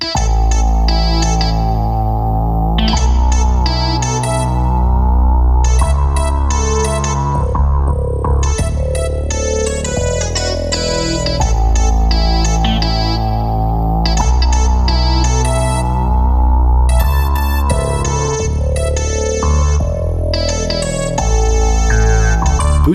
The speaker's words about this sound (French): passage instrumental acidulé et un peu curieux du nom de … du compositeur … dans son album …